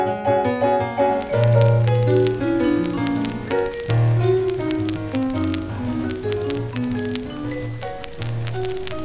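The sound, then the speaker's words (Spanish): A vinyl record plays, a melodic tune in mid and low pitch with steady crackle and scattered sharp pops of surface noise running throughout, clearly audible over the music. “Escucho rumores de fritura.”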